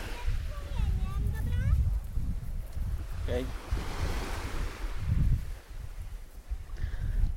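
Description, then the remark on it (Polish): Gentle waves of a calm sea wash and lap against a beach with shallow water, sheltered by mountains on three sides, in soft, rolling swells, with steady wind rumble across the microphone and brief, indistinct voice sounds. “Woda niespiesznie sobie faluje.”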